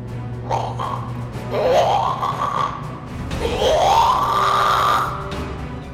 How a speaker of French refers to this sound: Il roule à plus de 160 km/h, mais la créature le suit toujours de près, lui et ses amis, et ils entendent maintenant ses petits cris comme des couinements éraillés.